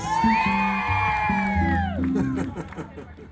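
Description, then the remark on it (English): A concert crowd at a live band performance cheers loudly, with several high, sustained whoops rising above the noisy roar before the applause and shouting taper off. “It's a you're a wonderful crowd, and we're going to dedicate this next song to all of you.”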